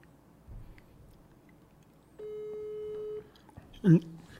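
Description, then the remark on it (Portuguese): A phone busy tone after a dropped call sounds once as a steady, fairly loud electronic beep lasting about a second, with a brief muffled voice-like burst just after it and faint background noise. “a ligação caiu.”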